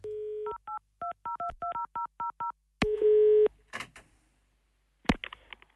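A steady dial tone gives way to a quick run of about ten short, evenly spaced touch-tone beeps, followed by a burst of line static and clicks as the call connects, in an old 2011 phone call made to call in sick at the wrong workplace.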